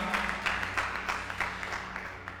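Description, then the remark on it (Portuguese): A crowd applauds a Bible reading, many hands clapping in a dense, continuous crackle with small bursts of sharper claps, held at a fairly soft, even level with no talking. “Dá um aplauso aí por esse texto.”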